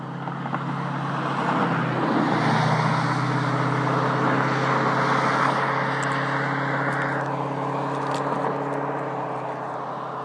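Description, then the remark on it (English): Steady roar of cars rushing past close by on a highway bridge over the Cosumnes River, at the border of Amador County and El Dorado County. A loud whoosh swells and fades early on, with continuous traffic noise and a low engine hum throughout and no talking. “There's not much room between me and the cars and the edge of the bridge.”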